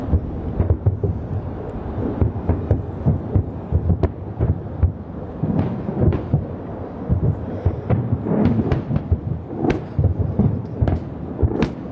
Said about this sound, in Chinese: 接连不断的炮声，光是听就让人紧张的竖起汗毛。 You can see those Iron Dome interceptions right above us.